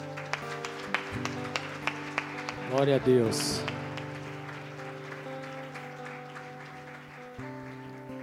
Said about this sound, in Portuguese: Aplauda o Senhor, queridos.